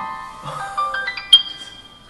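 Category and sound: signal or alarm, alarm ringing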